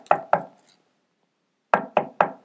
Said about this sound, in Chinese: 她敲门